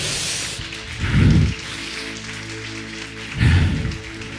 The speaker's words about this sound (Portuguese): Aplauda ao Senhor mais uma vez essa noite.